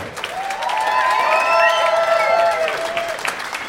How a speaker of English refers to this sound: Would you please give a wonderful, wonderful, wonderful round of applause for the fabulous …?